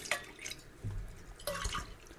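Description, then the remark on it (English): Water splashes and trickles briefly as a drinking glass is rinsed, with a few wet drips and sloshes over about two seconds, moderately quiet and with no one talking. “Did you get a rinse on your glass so you don't have sour passion fruit That's in there?”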